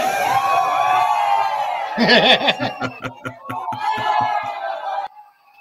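A lively crowd cheers and shouts in overlapping voices, with a burst of rapid rhythmic clapping midway, then the noise cuts off abruptly near the end.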